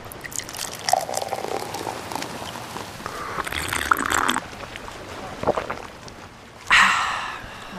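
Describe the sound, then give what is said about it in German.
Fresh hot coffee pours from a thermos in a steady, gurgling trickle, with a few soft knocks along the way and a brief louder splash of liquid near the end. “Cool, dass du auch noch einen Thermoskanne mit frischem, heißen Kaffee eingepackt hast.”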